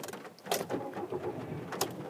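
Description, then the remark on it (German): Inside a car being driven on a rainy Monday morning: a steady low interior hum with a couple of sharp clicks and soft rustling handling noises, and no one speaking. “Ich sitze im Auto.”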